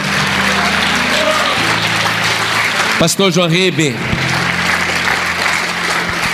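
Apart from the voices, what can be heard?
audience applauding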